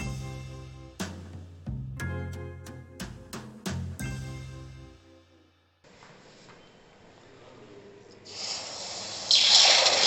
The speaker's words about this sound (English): the quenching method in which we dip the uh, hot red hot component in a quenching media which is nothing but water brine solution or oil so right now we have a water so i'm going to uh, dip that red hot component in the water. So let's see.